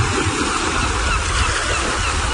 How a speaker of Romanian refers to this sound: Ascultă Marea